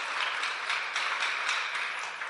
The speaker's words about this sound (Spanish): Den ese aplauso fuerte al Señor.